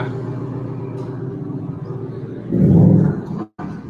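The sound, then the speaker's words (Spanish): A car engine rumbles steadily, a low droning hum that swells louder near the end before cutting out abruptly for a moment and resuming. “Ah, el coche.”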